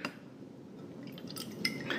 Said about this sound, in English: grab a bottle of this beautiful black and gold uh, Grand Brulot. And as we're as we're pouring this this uh, this, this beautiful uh, elixir, if you will,